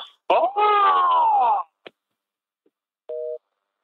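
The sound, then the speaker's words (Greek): A drawn-out, wavering wail-like sound and a couple of clicks come first, then after a pause a single short, steady burst of telephone line tone, clear and fairly loud. “Έτσι τηλέφωνο είναι αυτό.”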